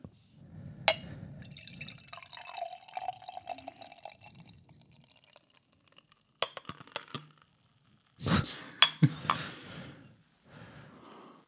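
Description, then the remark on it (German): Beer trickles and splashes into a glass, with a few sharp clinks and a gurgling pour in bursts, then a short sigh at the end; no one speaks. “Es ist, äh, schenkt dir das auch erstmal ein.”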